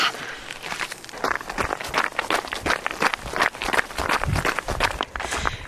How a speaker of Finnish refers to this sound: No niin, nyt lähdetään naputtamaan ja katsotaan, minkälaista ääntä kuuluu. Kivasti narskuu toi hiekka tuolla kenkien alla.